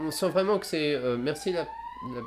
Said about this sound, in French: C'était une ambulance.